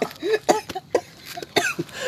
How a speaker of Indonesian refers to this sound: Batuk saya